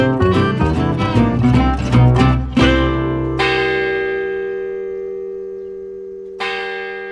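Church bells in the town of Rust peal at 11 o'clock to call people to lunch, a busy overlapping cluster of strikes, then two single heavy bell strokes ring out and hum away slowly, loud and resonant with no voices.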